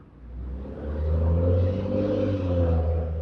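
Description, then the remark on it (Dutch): A bus engine rumbles, its low tone rising and swelling as it revs and draws nearer, steady and loud for a few seconds with no talking. “Oh, daar is de bus.”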